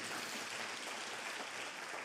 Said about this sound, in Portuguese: Se você crê, aplauda mais uma vez o nome de Jesus.